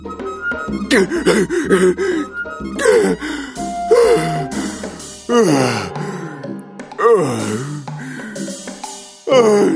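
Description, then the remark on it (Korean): A voice acts out a tiger's heavy, gasping breaths, a run of loud, ragged huffs and voiced pants with short pauses between them, as if it has just run hard. “그리고 가쁜 숨을 몰아내시며 말했어요.”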